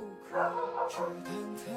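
A small pet corgi named Xiaodundun barks a few quick, yappy times in a row, fairly faint, over a steady low humming tone in the background.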